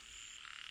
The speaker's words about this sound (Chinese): 蛤蟆在水田里群叫，深夜静听，往往变成一种金属音，很是特别。